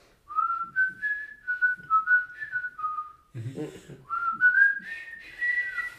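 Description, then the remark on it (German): A person whistles a film theme melody, the tune rising and falling in sustained notes over several phrases with a brief breathy pause midway, no talking. “Ich kann es nicht so schön pfeifen, aber du weißt, was ich meine, oder?”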